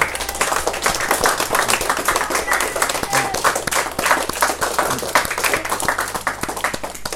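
Steady, dense applause from an audience fills the whole stretch, many hands clapping at once in a loud, continuous patter with a few voices murmuring underneath, applause thanking a guest who is a still-active player.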